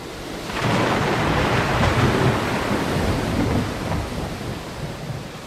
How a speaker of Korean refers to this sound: 엄청난 폭풍이에요. 몸을 숙이세요.